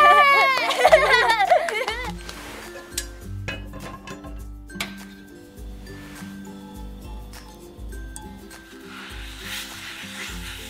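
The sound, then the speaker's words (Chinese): Scattered metallic clinks and taps of pots and pans while frying crepe layers for a mille-crêpe cake, spaced irregularly over a soft sizzling hiss, with a brief high-pitched voice near the start. “好，那我们开始煎饼皮了。”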